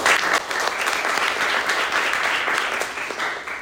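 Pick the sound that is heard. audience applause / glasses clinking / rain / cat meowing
audience applause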